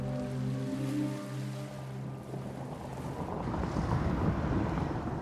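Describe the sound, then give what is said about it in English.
Steady outdoor ambience on the Albert Bridge over the river in London as someone walks across, with a low droning engine hum like a passing boat and gusts of wind buffeting the microphone, blending into a broad rushing wash. “I'm walking across the Albert Bridge, which is my favourite bridge in London.”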